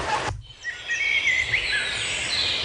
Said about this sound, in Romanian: Păsăret.